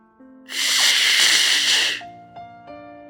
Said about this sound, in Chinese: 车轮与地面摩擦出了刺耳的声音，电动车紧急刹车